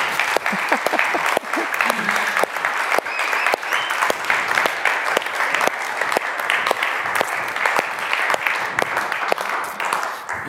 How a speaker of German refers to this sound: weiß zwar nicht, ob wir mit dem Applaus im Himmel in die erste Reihe dürfen. Wahrscheinlich werden wir nach hinten versetzt, deswegen, aber ist doch okay.